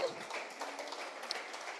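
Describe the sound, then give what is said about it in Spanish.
An audience applauds the Lord in a dense, steady wash of many hands clapping at once, with no single claps standing out, sustained evenly at a moderate level for about two seconds. “Amén, diga amén, un aplauso al Señor y dígale, ayúdame, Señor.”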